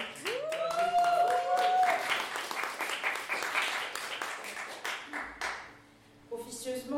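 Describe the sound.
An audience breaks into applause and cheering to encourage a performer taking the stage, a dense crowd of clapping with a rising whoop near the start, fading out after several seconds before a voice begins speaking.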